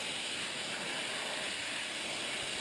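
Jet suit engines, one on each leg and two on each arm, firing during the suit's first six-second, reasonably coherent flight: a steady, unbroken roaring hiss, bright and heavily weighted toward the high end, holding constant for the whole few seconds with no voices.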